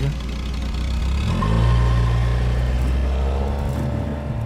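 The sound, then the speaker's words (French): The engine of one of the first Ford Mustangs in Paris, in the 1960s, idles with a deep, steady rumble, its pitch lifting briefly near the start before settling into an even, throaty hum. “Le son, le son dont je me souviens le plus des années 60, curieusement, c'est le son de la première euh, Ford Mustang”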